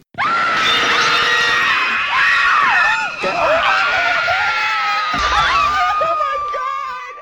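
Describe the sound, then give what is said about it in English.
Loud, sustained screaming fills the whole recording, several high shrill voices wailing together with wavering pitch, intense, dipping briefly before surging again. “Now don't you feel better? You are now officially a Scream Queen.”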